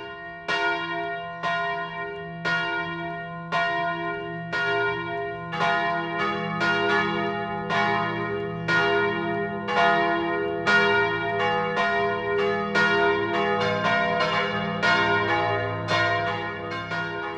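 Church bells in Hittenkirchen am Chiemsee ring out the 12 o'clock noon peal, aired by Bayern 1, loud and steady, with overlapping metallic strikes in a quick repeating rhythm and a low sustained hum underneath, no voices.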